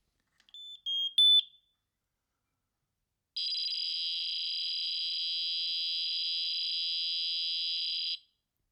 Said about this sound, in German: Nein, die haben sowas ähnliches wie ein Fax eingebaut in diese Rauchmelder. Äh, und zwar drückt man in der App auf Testen und äh, hält dann die Rauchmelder-Taste für ungefähr drei Sekunden gedrückt und dann kommt dieses Geräusch